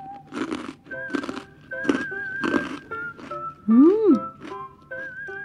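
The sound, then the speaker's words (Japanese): Four loud, crisp crunches of biting into a thick, soy-sauce-flavored Soka senbei rice cracker, grilled one by one, spaced about half a second apart, with a steady tonal background and a short hummed 'mm' rising and falling afterward. “いい音生地がこう厚みがあって噛めば噛むほどお米のこのルチ米の美味しさが際立ちますしあと醤油のね香ばしいのがいいですね”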